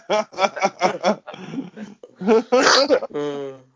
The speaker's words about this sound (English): was a smoking cough, not a corona cough. Okay? Nobody panic.